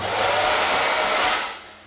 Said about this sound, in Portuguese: o Abner acompanha esse movimento com o secador nas mãos, levando o vento para onde o Eric leva a mão